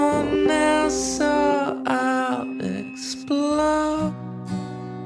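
An alternative rock song plays loud and close, with a drawn-out, wailing male vocal line over a steady low bass and sustained guitar tones, continuing throughout.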